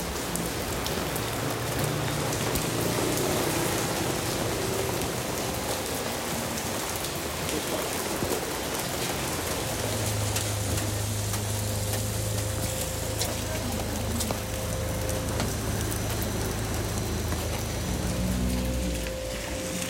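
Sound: rain falling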